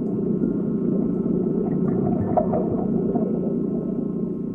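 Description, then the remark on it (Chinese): A bus engine starts and then rumbles steadily at a low pitch, a dense, droning hum that holds an even loudness throughout with faint fluttering on top. No voices are heard. “车终于启动了。”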